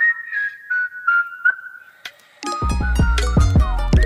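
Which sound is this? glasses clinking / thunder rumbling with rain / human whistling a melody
human whistling a melody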